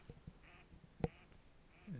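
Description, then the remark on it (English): A few scattered duck quacks, faint and distant, come in brief separate bursts against a quiet outdoor background, with one sharper call standing out midway. “these ducks here. They seem like mallards of some kind.”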